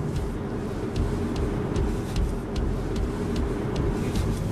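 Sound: car driving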